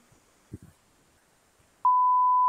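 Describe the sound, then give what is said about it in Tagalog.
A few muffled low thumps give way to a sudden, loud, steady censor bleep, a pure mid-pitched tone that starts abruptly and holds unbroken to the end. “Hindi, eh, sensor natin, sensor natin.”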